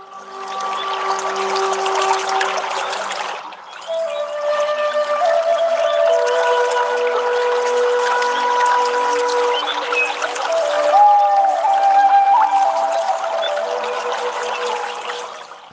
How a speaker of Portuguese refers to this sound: Então entre e sinta que a água do rio te acolhe amorosamente.